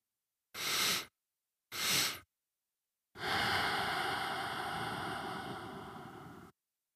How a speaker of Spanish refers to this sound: consiste esencialmente en hacer una inhalación fuerte e interrumpida y luego una exhalación larga y continua. Suena más o menos así.